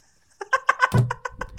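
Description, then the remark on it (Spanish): A quick clatter and dull knock of headphones dropping, set among a rapid run of bright, chirpy blips that patter along for under two seconds. “Ese fue el sonido de los auriculares yéndose.”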